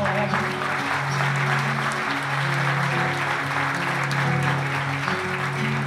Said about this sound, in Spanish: pero el cariño se expande, les pido un aplauso grande para mí y para vosotros.